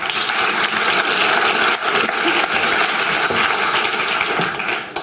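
Steady, dense applause from an audience, a continuous crackle of many hands clapping at an even loudness throughout, with no voices standing out.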